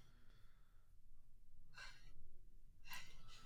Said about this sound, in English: There's a bunch of breathing.